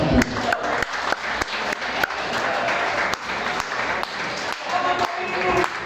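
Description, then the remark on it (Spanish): An audience breaks into sustained applause, a dense steady wash of many hands clapping at a fairly loud level, with a few sharper individual claps standing out throughout. “Ah, aplausos para el”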